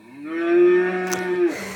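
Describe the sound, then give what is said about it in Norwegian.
A single sustained cow moo played by a Google voice assistant in answer to how a cow sounds, loud, holding a steady low tone for over a second before cutting off, with no talking. “Hey Google, how does a cow sound like? This is a cow.”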